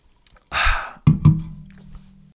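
A short airy slurp as someone sips a White Monster energy drink, followed by two soft gulping thumps and a low, steady hum-like exhale that fades out.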